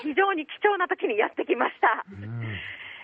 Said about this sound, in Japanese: はいでここですね、あの今、セミの鳴き声が聞こえてまして、あのまあ、カエルの鳴き声のような、セミの鳴き声のような、そんな鳴き声なんですが、はい、春ゼミといって、この時期、1週間しか鳴かないそうなんです。